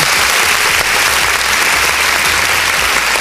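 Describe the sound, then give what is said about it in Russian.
Steady, dense applause from an audience in a studio as a musician guest is introduced, a continuous wash of many hands clapping at a fairly loud, even level throughout, with no voices standing out. “Итак, вот вот сейчас будут аплодисменты”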